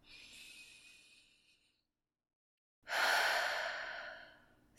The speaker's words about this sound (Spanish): Toma una profunda respiración por tu nariz y exhala por la boca. Y nuevamente repítelo.